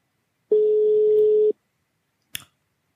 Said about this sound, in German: So, wir bauen jetzt gerade eine Standleitung auf. Wir haben nämlich heute ein äh, Außenreporter-Team und ich hoffe, dass die uns jetzt gleich hören können. So, ähm, es klingelt.